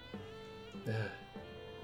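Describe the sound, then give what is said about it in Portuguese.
A cat meows once, a short, faint, tonal cry that rises and falls, heard over a quiet, steady background hum with no talking. “É, talvez vocês estejam ouvindo o, o gato miando.”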